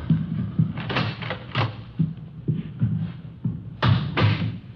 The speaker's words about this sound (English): All right. I'll get the door.